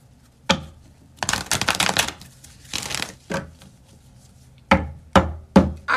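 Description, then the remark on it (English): Tarot cards are shuffled: a few sharp taps and snaps, then a long riffling burst and a shorter second riffle, ending with several crisp slaps as the deck is squared. “I'm getting the cards.”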